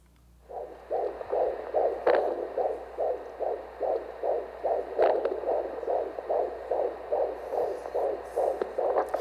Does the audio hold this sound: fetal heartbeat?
yes